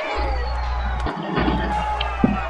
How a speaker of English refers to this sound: And as you can hear, the uh, the crowd is just going crazy.